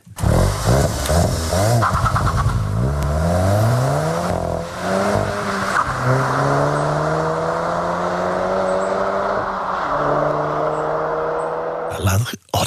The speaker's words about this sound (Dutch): Over het oude normaal gesproken, in de rij impressie hoor je straks de nieuwe Volkswagen Golf GTI.